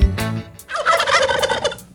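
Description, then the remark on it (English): A wild turkey lets out a loud gobble, a rapid rattling warble lasting about two seconds, with no voices around it. “Wild turkey.”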